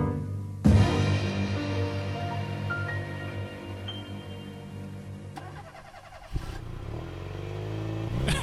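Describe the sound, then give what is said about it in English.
An old car engine cranks and catches with a sudden roar, then idles roughly with a steady low rumble and a few rising revs, loud, with no talking. “it sounds like we got a new car for our drive home segment here.”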